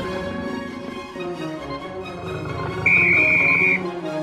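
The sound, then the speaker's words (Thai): A single sharp, high starting whistle blast for a running race rings out for about a second over a busy, dense bed of background sound, loud. “เมื่อเสียงนกหวีดดังขึ้น นักวิ่งทั้งสองก็ต่างมุ่งหน้าไปยังเส้นชัย”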